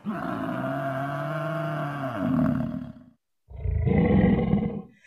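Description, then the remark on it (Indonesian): An angry lion roars twice with deep, rumbling force, a long sustained roar followed after a brief silence by a second shorter one, loud with no other sounds. “Pada suatu hari, seekor singa tiba-tiba marah besar.”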